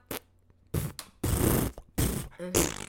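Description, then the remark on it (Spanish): A person blows a series of wet, buzzy raspberries with the tongue and lips, about five sputtering bursts of varying length with short pauses, fairly loud, with no talking. “Este, el de la lengua dentro de El de, la lengua es raspberry.”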